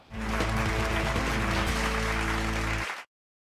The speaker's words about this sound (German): Einen virtuellen Applaus mit dem Thema Klartext